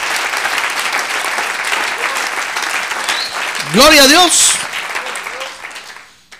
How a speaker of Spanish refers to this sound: ¡Ah, gloria a Dios! Démosle un aplauso al Señor. ¡Gloria a Dios!